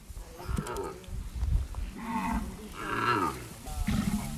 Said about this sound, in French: Merci, on va se quitter sur le son du zébu, si c'est possible.